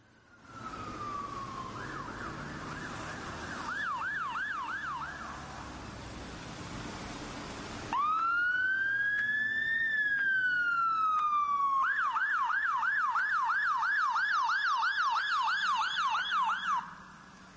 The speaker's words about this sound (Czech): Představte si, že vidíte jet takovouhle eh, houkající sanitku, to sice bylo z Londýna, ale doufám, že vám to nevadí.